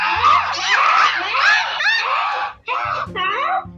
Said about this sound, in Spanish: Todos los papagayos gritan con fuerza.